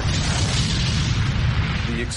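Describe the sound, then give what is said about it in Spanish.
A massive underwater explosion of torpedo warheads aboard the Kursk submarine, several tons of explosives detonating together: a loud, deep roaring rumble that fills the whole stretch as one continuous blast, heavy in the low end, without separate bangs. “Todas las cargas cercanas se ponen a explotar.”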